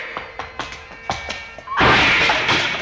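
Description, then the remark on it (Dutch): A quick run of hollow thuds as feet kick against a wooden door studded with nails, six or so blows in uneven rhythm, then a louder splintering crash that rings out as the door gives way. “Hier gebruik ik mijn voeten voor.”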